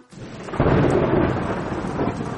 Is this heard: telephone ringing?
no